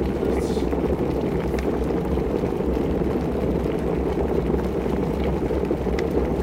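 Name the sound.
water boiling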